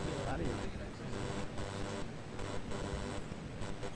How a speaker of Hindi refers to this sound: चल रहा है मेरे बहुत तेज आवाज़ कर रहा है किसी एसी की आवाज़ तो नहीं आ रही कोई एसी सी कर रहा है साउंड साउंड